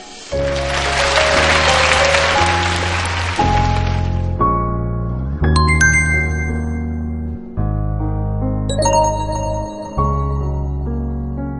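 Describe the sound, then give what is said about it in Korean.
An audience bursts into loud, dense applause for the children and their mothers and fathers, lasting about four seconds while music plays underneath; the clapping fades and the music carries on alone. “이제 또 자기가 해나갈 테니까 무슨 의미가 있을지는 모르겠지만 그 아이들에게 엄마들에게 아빠들에게 그런 박수 한번 보내주시기 바랍니다.”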